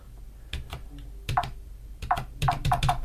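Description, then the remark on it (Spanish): A series of crisp computer keyboard key presses, about seven clicks spaced irregularly and bunching together toward the end, with no voices, made while pressing the key just right of the left Shift key to identify the keyboard layout during setup. “Eso que veis es yo pulsando la tecla y hacer un ruidito.”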